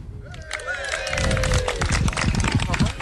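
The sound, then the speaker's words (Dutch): Quick, rhythmic footfalls of people running toward the opening of a neighbourhood campsite in Flevopark, fairly loud, with heavy breathing and some voices or a brief tonal call at the start. “We rennen snel naar de opening toe, zodat we zodat we kunnen meeluisteren.”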